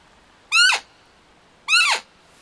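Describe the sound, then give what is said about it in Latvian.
Two loud, shrill squeals from a hunter's roe deer call blown to imitate a doe's hysterical cry and lure bucks, each short and harmonic with a quick falling pitch, separated by a brief pause. “Ja nenāk ar parasto pīkstienu, pamēģināt šo histērisko, Tāpēc, ka nu, tas ir signāls, ka tur kaut kāds svešs āzis to kazu apgrozījis.”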